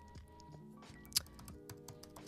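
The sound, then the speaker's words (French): Quick, irregular clicking of keys on a computer keyboard, fairly quiet, with one sharper, louder keystroke midway through, as a link is put into a chat; no one is talking. “Je vous mets le, le, lien dans le dans le chat.”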